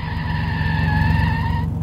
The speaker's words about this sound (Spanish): El auto cayó por la pendiente y no tardó en dar la primera vuelta.